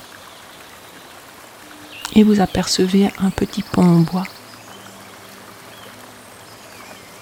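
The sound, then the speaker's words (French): A stream flows steadily throughout, a soft continuous rushing and trickling wash. Partway through, a woman speaks calmly for a couple of seconds over the running water. “Vous entendez le bruit de cette eau qui coule.”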